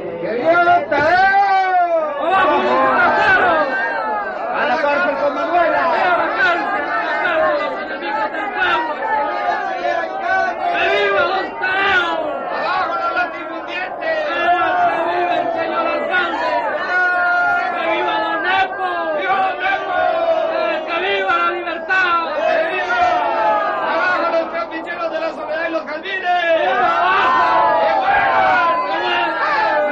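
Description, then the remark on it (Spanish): A large crowd in a village shouts threats and clamors continuously, many overlapping voices rising and falling in agitated yells, loud and dense for the whole stretch. “¿Por qué todos esos gritos y estas amenazas?”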